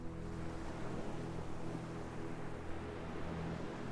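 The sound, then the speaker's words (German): Steady, broad ocean surf washes on without pause, a constant rushing roar with a low rumble underneath, heard alone with no voices. “Du kannst die Ruhe des Ozeans regelmäßig mit dieser Meditation aufnehmen.”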